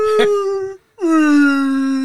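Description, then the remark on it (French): A person imitates a whale call with two long, loud, moaning hums separated by a brief pause, the second one sliding gently downward and holding steady. “je m'identifie comme une baleine.”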